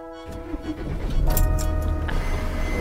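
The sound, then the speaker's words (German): A vehicle drives onto apron 1 of an airport with a steady low engine rumble and a faint tonal whine, the engine noise swelling a little louder partway through, with no talking. “So, wir fahren weiter.”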